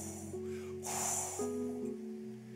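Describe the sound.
A voice imitates strong winds and typhoons: a breathy, whooshing blow swelling in the middle, carried over a steady hummed, wavering tone that shifts pitch, fairly loud.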